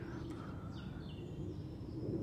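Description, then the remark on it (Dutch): Faint birdsong, a few thin whistles and chirps rising and falling over a steady low background rumble, with no one talking; a morning bird chorus heard from a small veranda at a house in the woods. “En iedere morgen is het concert van de vogels om zeven uur s morgens op zijn hoogtepunt.”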